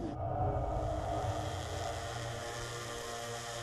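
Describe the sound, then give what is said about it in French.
A steady, droning buzz of hovering military drones, a dense low hum with layered overtones that holds at an even, moderate loudness for a few seconds with no voices. “Un inconvénient, et un inconvénient qui n'est pas négligeable, c'est le bruit, ce bourdonnement des drones, avec évidemment le risque d'être repéré.”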